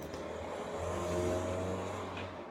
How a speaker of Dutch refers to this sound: Er reed even een auto voorbij.